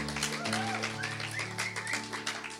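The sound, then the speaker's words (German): An audience applauds, many hands clapping in a dense, steady patter throughout, with sustained low musical tones holding underneath. “Äh, ihr habt definitiv einen krassen Applaus verdient.”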